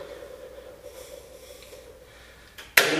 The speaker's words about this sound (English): And it's gonna re-engage and you just heard the drain pump come on. So I'm gonna watch this for leaks when it starts to fill.